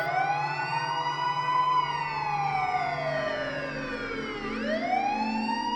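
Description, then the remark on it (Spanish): A wailing emergency siren approaches, sweeping slowly up and down in pitch, loud and continuous, with a low engine rumble beneath it and no voices. “Escucho sirenas acercándose.”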